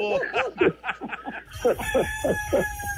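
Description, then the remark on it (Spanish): A rooster calls in a rapid series of short, harsh, clucking bursts, loud, with no one talking and a faint hiss of background noise rising partway through. “también al gallo ese.”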